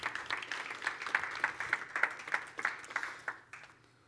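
An audience breaks into a round of applause for the two people who created the platform, a dense patter of many hands clapping at moderate volume for a few seconds before tapering off and fading out.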